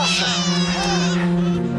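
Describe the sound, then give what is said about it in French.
A just-delivered newborn baby boy cries in a loud, continuous, high-pitched wail that wavers slightly, with a steady low hum running underneath, before the umbilical cord is cut. “Oh, tu l'entends, tu l'entends.”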